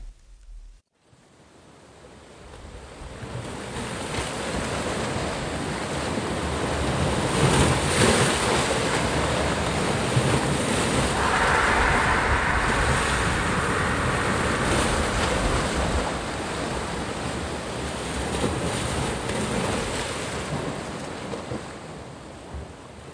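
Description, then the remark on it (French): Continuous rushing sea waves at night churn with a broad, hissing roar that swells and recedes slowly, loud and steady throughout with no voices, a low rumble underneath the wash. “Pour un temps qui lui parut une éternité, il lutta contre la mer.”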